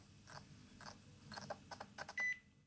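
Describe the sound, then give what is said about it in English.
Several soft mechanical clicking bursts, then a single short, clear electronic beep from a muscle-operated bionic arm as it enters freeze mode, fairly loud, with no talking. “that beep, everyone on the podcast.”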